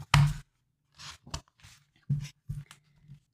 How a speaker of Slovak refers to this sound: A s týmito hroznými slovami už len buchne starček za sebou dverami.